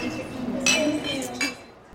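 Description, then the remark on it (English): Glasses clink together in a toast, two bright, ringing taps about half a second apart, over a low murmur of voices. “Thank you for having me. Cheers. Cheers.”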